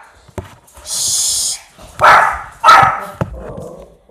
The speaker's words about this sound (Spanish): Ya, ya está feliz ladrándole al, al perro que quería.